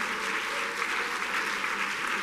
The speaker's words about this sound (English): If you love Him, would you clap your hands to Him right now one more time?